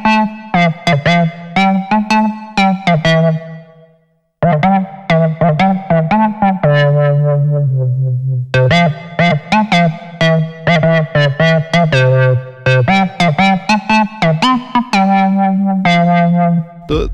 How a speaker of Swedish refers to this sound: Men ska vi, eh, ska vi lyssna på din tolkning av Sveriges nationalsång? Ja, men vi drar på, väl igång direkt. På uh, Vermona från DDR.